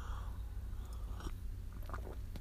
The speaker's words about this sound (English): Excuse me while I get a little sip of coffee here.